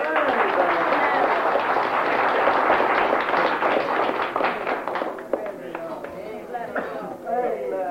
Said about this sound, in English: Praise the Lord. Give him a clap.